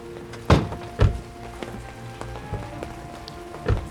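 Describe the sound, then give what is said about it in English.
Car door locks clunk open: a quick pair of sharp mechanical thunks, then a few faint clicks, and one more solid thunk at the end, over a low steady hum. “He unlocks the doors.”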